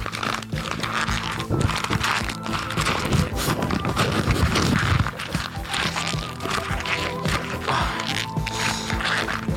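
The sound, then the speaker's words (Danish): Three sheets of paper being crumpled into a ball, a steady, dense crackling and rustling that carries on for the whole stretch with irregular sharp crinkles and no voices. “Jeg kan lige nå at tage tre stykker papir, og så prøver jeg simpelthen at folde den.”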